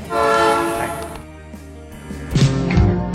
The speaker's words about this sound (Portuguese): E veio passando o trem, hein? A clássica cena de novo aqui. Todo dia passa, é claro. Já é um personagem constante.